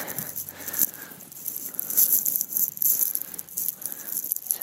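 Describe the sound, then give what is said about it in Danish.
An egg being cracked open: a run of crisp, papery crackles and small rattling clicks from the shell, fairly soft and steady for a few seconds, with no talking. “Og øh, jeg slår lige hul på ægget her.”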